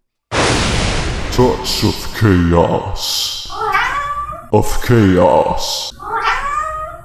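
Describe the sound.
A cat meows several times up close, loud drawn-out cries alternating with a person's calling voice, as if the two are answering each other back and forth.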